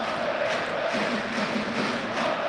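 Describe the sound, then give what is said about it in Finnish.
A large ice hockey arena crowd, including Ilves supporters, roars and cheers continuously, a dense wash of many voices with faint chanting tones rising through it, loud and sustained throughout. “Kiitetään toi yleisö, niin saadaan vielä vähän, vähän meininkiä tänne.”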